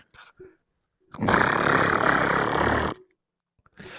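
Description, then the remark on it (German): A voice imitates chirping crickets with a loud, harsh, continuous buzzing rasp that lasts under two seconds, heard alone between brief quiet pauses. “Es klingt nach einem Kompressor, aber es sind Grillen.”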